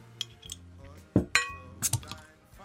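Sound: glasses clinking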